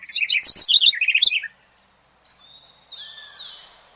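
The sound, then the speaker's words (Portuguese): Birds chirp and sing in a quick, bright burst of tweeting notes, then a pause, followed by a thinner, longer whistling call. Fairly loud, with no voices. “O objetivo do levantamento é oferecer dados para ações de gestão, ecoturismo, educação ambiental e conservação, uma vez que há muito pouco conhecimento disponível e atualizado sobre as aves remanescentes nessas regiões.”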